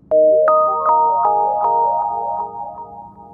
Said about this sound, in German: Das Slate piepste.